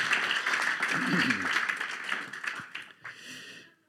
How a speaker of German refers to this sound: Lass uns nochmal einen Applaus geben und mach dein Herz weit auf.